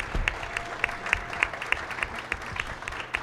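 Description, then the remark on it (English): An audience at a comedy panel at the Big Pine Comedy Festival claps together in steady, dense applause, many hands producing a continuous crackle of sharp overlapping claps that holds at a moderate level for a few seconds. “Let's give a round of applause for our panel.”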